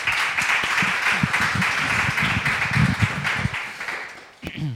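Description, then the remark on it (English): A steady round of applause from a crowd, dense and even for several seconds, with voices talking and murmuring underneath before it tapers off. “Hmm, yeah, you can give me a round of applause.”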